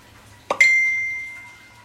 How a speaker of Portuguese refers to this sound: Notificação de mensagem.